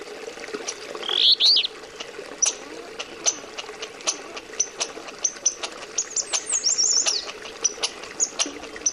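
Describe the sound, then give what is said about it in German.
Bird calls ring out in an outdoor field recording from Alaska: high chirps and short whistled phrases scattered irregularly over a steady low ambient hum, with brief rustling or clicking sounds between them. “Auf ihnen sind unter anderem Sterntaucher zu hören, Eisfrösche, Meisenhäher, Dallschafe oder der Goldwaldsänger, der Sound von Alaska.”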